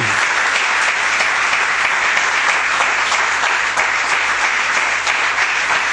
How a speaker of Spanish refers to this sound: Aplaudirle si quiere, Dale un aplauso. Es para el Señor, no es para mí.